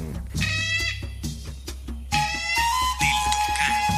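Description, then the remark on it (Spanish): A toucan gives a run of loud, harsh, nasal calls in a quick, steady rhythm, each note rich in overtones, over a constant low hum. “Escuchas el canto del tucán.”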